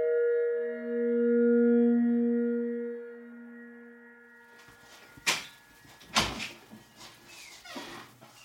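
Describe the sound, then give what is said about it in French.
A steady tonal whine holds for a few seconds, then a door is opened with a couple of sharp clunks and some rattling, shuffling handling noise. “Vas-y, nous, ouvre la porte, vite fait, vas-y.”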